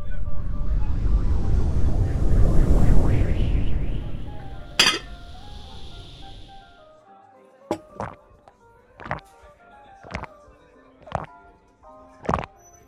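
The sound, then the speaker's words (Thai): A drinking glass is set down with a sharp knock after a low rumbling wash fades, followed by about seven bright, ringing clinks at uneven intervals. “จูจ่ๆ การตั้งแก้วก็ดังขึ้นอย่างประหลาดใจ”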